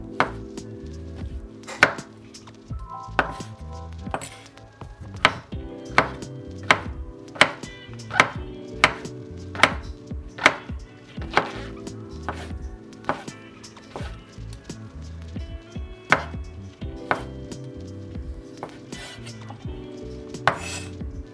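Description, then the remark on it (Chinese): A knife chops soft, water-rinsed shiitake mushrooms into fine, thin segments on a board in steady, sharp taps, each clean and crisp, continuing at an even rhythm with brief pauses, no voices over it. “好，那我们香菇部分我们就是切细，好，切细段。”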